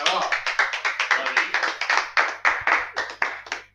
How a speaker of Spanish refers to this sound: un aplauso.